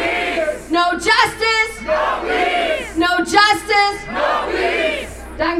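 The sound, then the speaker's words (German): A large crowd of protesters chants a protest slogan in unison in response to a speaker, loud rhythmic shouted phrases repeating roughly every second and a half, voices blending into a powerful collective roar. “Ich finde, umso lauter müssen wir schreien, um denen eine Stimme zu geben, die keine mehr haben.”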